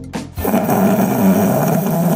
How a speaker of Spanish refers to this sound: Dice, bueno, María eh, estaba tan cansada de esto que grabó toda una noche a su marido porque eh, él decía que él no roncaba.